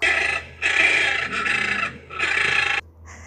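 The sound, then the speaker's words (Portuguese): A toco toucan calls with a few harsh, rasping croaks in quick succession, loud, each a grating burst separated by brief pauses, with no voices. “o tucano toco”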